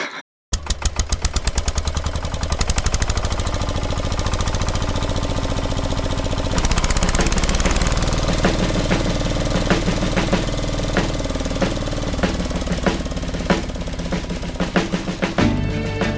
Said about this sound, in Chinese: 其实这首歌里面还有一个蛮有趣的声音，这里面有拖拉机的声音。我印象中，马世芳在评价这首歌的时候，说是在流行乐史上第一次出现拖拉机的声音。